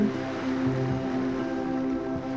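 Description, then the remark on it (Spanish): A steady, soft wash of ocean surf rolls on continuously, blended with a sustained low musical drone; no voices are present and there are no distinct individual wave crashes. “Escucha el movimiento de las olas.”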